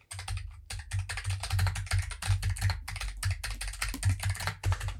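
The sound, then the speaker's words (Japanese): Rapid, continuous clatter of computer keyboard typing, fairly loud, with irregular bursts of keystrokes running throughout and no voices. “キーボードがすごいカタカタ言ってるけれども。”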